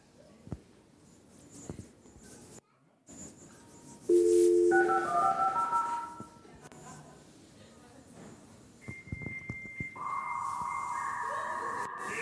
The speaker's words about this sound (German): Das war der Sound eines Modems. So klang das damals, wenn du eine Internetseite aufmachen wolltest.